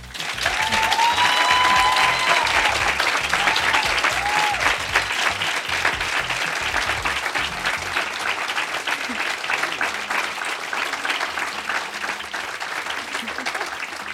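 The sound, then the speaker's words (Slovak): A large audience at the close of an event claps in a dense, steady roar that keeps going without fading for the whole stretch, with a few brief whistles or whoops rising out of it near the start. “toto bol určite najdlhší potles, ktorý sme kedy mali na ktorom evente.”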